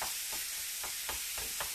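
Minced meat sizzles steadily in a pan over high heat, a dense hiss of crackling fat, with a few soft rhythmic scraping strokes of a spatula breaking it up into small pieces. No voices.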